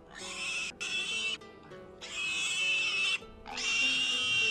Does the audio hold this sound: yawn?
no